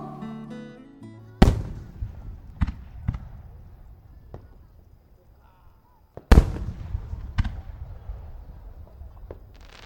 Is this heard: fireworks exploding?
yes